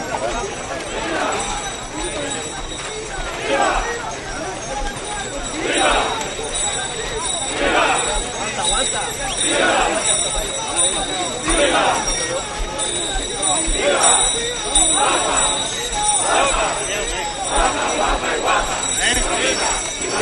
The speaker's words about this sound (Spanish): Estos son los sonidos que queríamos oír. Estas palmas por Huelva.